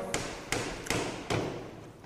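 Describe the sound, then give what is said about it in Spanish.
Four solid knocks on a door, evenly paced, each a dull thud with a sharp edge, followed by a moment of quiet. “Toca la puerta”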